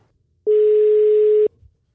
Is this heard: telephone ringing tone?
yes